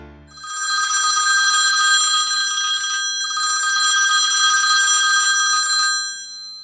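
An old-fashioned telephone bell rings loudly in two long, rapidly trilling bursts separated by a brief pause, with no voices present.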